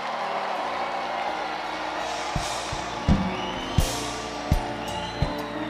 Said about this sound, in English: Give Jesus a mighty hand clap one more time.